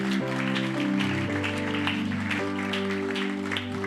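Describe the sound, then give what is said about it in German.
A church service audience applauds with steady, dense clapping over sustained keyboard chords that change a few times, the music and clapping continuing together throughout. “Lass uns mal einen Applaus geben, wie gut, wenn Menschen mutig sind und sagen, Jesus, ich möchte dich kennenlernen.”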